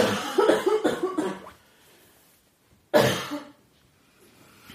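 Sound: coughing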